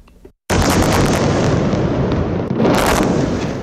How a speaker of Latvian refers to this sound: Šī nakts Gazas joslā pagāja ar nemitīgām sprādzienu skaņām, jo Izrēla veica aviācijas triecienus objektiem, kas ir saistīti ar džihādistu grupējumu Hamas.